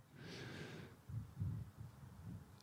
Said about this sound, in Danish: Du, du trækker vejret utrolig meget i dag. Eller også er det mig.